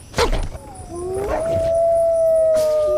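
A single wolf howls alone, a long rising tone that swells and holds steadily for a couple of seconds after a brief sharp onset, loud.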